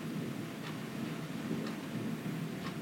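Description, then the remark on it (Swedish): Steady rain pours down under a continuous low rumble of thunder, with a clock ticking about once a second through the downpour. No one speaks. “Praktisk närvaro i smattrande regn och bullrande åska”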